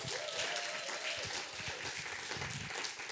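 Steady applause from a crowd, a dense wash of many hands clapping at an even level for a few seconds, with a faint murmur of voices underneath.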